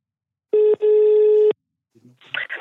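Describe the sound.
A loud, steady telephone ringing tone from an outgoing call to a professor at the University of Bergen, a brief burst followed by a longer one, then a short stretch of faint voices at the end.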